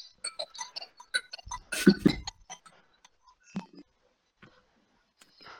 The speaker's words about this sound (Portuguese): um telefone a tocar, que falta de profissionalismo.